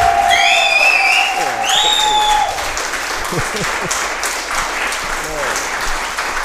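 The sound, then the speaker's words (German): Steady applause fills the whole clip at a fairly loud, even level, with a whistle-like high tone sliding through the first few seconds and faint voices mixed into the clapping. “Das ist schon mal ein Applaus wert, würde ich sagen.”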